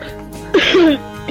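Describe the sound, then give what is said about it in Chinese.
A single throat clearing after eating very spicy chicken feet, a short gravelly rasp with a rising voiced edge lasting under half a second, fairly loud against an otherwise quiet, low background hum. “哎，谁在清嗓子？”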